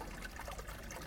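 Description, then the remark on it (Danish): Steady, gentle trickle of running water from a small brook in a natural garden, a soft continuous babble with faint bubbling detail, fairly quiet and heard on its own without any voices. “og det, I forhåbentlig kan høre her i, i baggrunden, det er lyden af rindende vand.”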